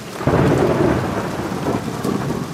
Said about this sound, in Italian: Inizia a camminare in maniera nervosa, in maniera scomposta, ma la pioggia è più veloce di te.